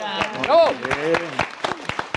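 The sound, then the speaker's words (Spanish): A short burst of recorded, fake applause: scattered claps popping irregularly, with a voice sounding over the first part and fading as the clapping continues. “Esos aplausos ficticios no nos funcionan.”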